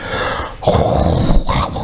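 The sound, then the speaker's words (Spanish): A voice imitates loud snoring: a rough, rattling, growl-like snore that runs for most of a second, then a second harsh, breathy snore right after it. “Son aquellas personas normalmente roncadoras, que son normalmente obesas, tan gorditas, y que por la noche están roncando y ahora, ya de roncar.”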